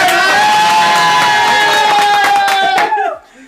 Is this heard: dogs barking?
no